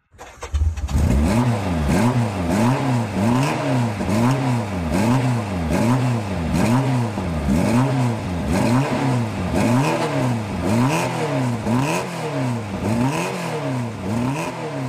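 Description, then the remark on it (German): A Honda sports car engine revs hard again and again, climbing and dropping in pitch in a steady repeating rhythm, loud, with no voices over it. “Der erste Honda in unserem Podcast.”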